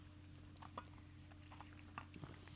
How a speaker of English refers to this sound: taking a little sip of my my tea here.